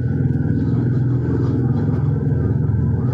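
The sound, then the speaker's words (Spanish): A passing motorcycle's engine drones steadily throughout, a loud, low, rumbling hum with a dense buzzing tone and no talking over it. “Pausa para moto.”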